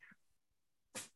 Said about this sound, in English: Bless you, sneezing cat.